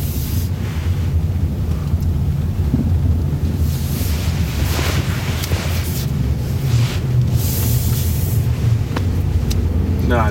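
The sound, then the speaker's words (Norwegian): Steady low road rumble with wind buffeting, rising into a couple of broad whooshing swells as vehicles pass by in heavy traffic at a town hall and school, loud and continuous throughout. “Rådhus og skole, så her er det masse trafikk.”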